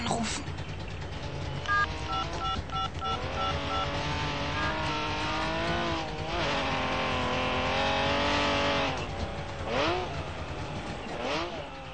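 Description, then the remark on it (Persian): A Porsche and a Trabant drive up loud, the Porsche arriving later than the Trabant, their engine pitch climbing and dipping as they rev and shift, with a couple of brief electronic beeps near the start. “شما شنیدید که پورشه دیرتر از ترابی به مقصد میرسد.”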